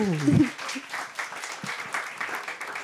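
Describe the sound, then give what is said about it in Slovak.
An audience breaks into steady applause for a guest who came to the event, a dense wash of many hands clapping at moderate volume, with a brief voiced sound at the start. “A, a tak, môžeme ti zatleskať.”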